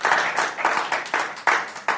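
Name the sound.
audience clapping hands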